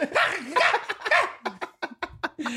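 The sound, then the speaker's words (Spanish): A small dog named Kaiser, weighing under a kilo, gives a drawn-out, wavering whine, then a quick run of short, sharp, fairly loud barks at the smell of poop. “que, hasta ves que Kaiser se emputa y le, ladra la caca, ¿no?”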